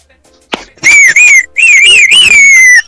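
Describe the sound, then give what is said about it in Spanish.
On a radio show, a person whistles a warbling, birdlike tune as the singing bird: after a brief click, loud wavering high notes rise and fall in two long phrases with a short break between, imitating a songbird. “Y para eso hablamos con el pajarito, el único pájaro que canta en la nueva radio.”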